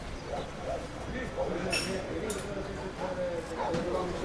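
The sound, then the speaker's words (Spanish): A few sharp clinks of dishes and glassware ring out over a steady murmur of voices on an outdoor café terrace, with Spanish television audible, moderately loud against the busy background chatter. “Estoy esperando aquí, afuera, en una terraza de un café.”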